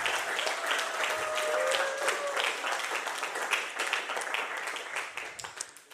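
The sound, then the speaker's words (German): An audience at a church service breaks into sustained applause, a dense wash of many hands clapping that holds steady, then gradually thins and fades toward the end, with a faint whistle-like tone briefly audible early on. “Sonst noch jemand, der einen Applaus abholen will?”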